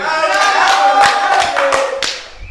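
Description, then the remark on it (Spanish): A brief burst of audience applause welcoming a guest, with irregular sharp claps over a steady crowd wash, fairly loud, with some faint tonal voices or cheers mixed in. “Démosle un fuerte aplauso al grande, al grandísimo.”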